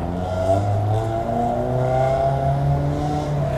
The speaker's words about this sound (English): As you can hear today, this is a very busy corner.